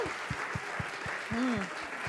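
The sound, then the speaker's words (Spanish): A church audience claps in a steady, even rhythm of roughly four beats per second during a sermon, with a voice briefly calling out partway through. “Si usted va a aplaudir aquí, hágalo bien.”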